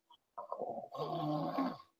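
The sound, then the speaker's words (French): A dog's breathing shifts into a light snore as it relaxes deeply while compression on its shoulder is released: a soft inhale gives way to a single drawn-out, rattling snore, fairly quiet, with no one talking. “en léger ronflement s'intensifie de manière parfaitement progressive avec mon relâchement.”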